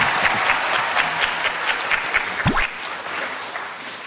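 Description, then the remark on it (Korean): A crowd applauds Daelim University students steadily, dense overlapping claps forming a loud, even wash of sound for several seconds, easing slightly toward the end, with a brief vocal whoop partway through. “지금 일단 우리 대림대학 학생들에게 여러분 박수 한번 보내주시기 바랍니다.”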